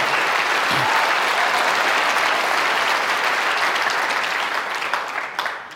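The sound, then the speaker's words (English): A room full of people claps steadily in dense, loud applause that holds strong for several seconds before beginning to thin out at the end. “Wow, I don't normally get an applause there.”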